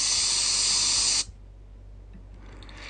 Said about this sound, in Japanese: てかさ、セミうるせえ